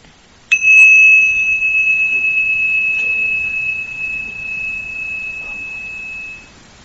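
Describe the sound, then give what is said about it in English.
A single bright bell strike, rung to signal the start of a speaking-and-listening exercise, rings out with a clean metallic tone that sustains and slowly fades over several seconds with no talking over it. “So I'll ring the bell. And then we begin when I ring the bell, and then when I ring the bell again, then just pause, and then just we'll switch.”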